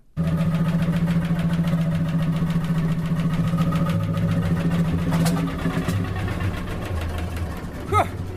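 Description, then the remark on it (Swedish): A vintage 1935 Munktell 25 tractor engine runs steadily at the head of one of Sweden's largest tractor parades, its low rhythmic chugging and knocking loud and continuous throughout, with a brief clank near the end and no voices. “Vi börjar med att lyssna på en Munktell 25 från 1935.”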